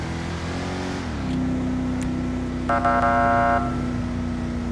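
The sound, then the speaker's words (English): A video game car engine drones steadily, then steps up in pitch as it accelerates, holding a loud, buzzing hum; a short horn honk sounds partway through. No one speaks. “anything I, do, I can do about the performance of this car?”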